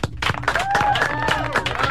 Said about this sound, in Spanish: Este aplauso es para el hielo. Llegó el hielo.